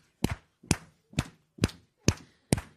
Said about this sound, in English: We're going to clap our hands, stomp our feet, and we're going to give him praise. Amen? So, let me see your hands. Now, let's stomp our feet.